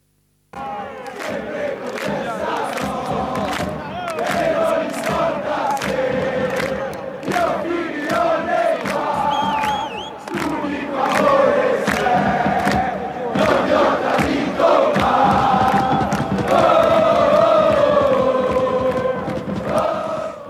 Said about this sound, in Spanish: es, lindo escuchar este coro en el estadio y bueno, es eh, emocionante. Eh, seguramente estar en el campo y escuchar a, la curva cantar y corear esta, este, este coro